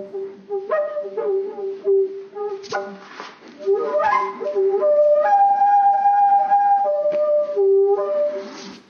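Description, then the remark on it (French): A flute plays a clear melody of sustained notes that rise and fall, with breathy attacks and a few quick runs, heard alone without any talking. “ben oui, c'est de la flûte, Pompidou, bien sûr que c'est de la flûte.”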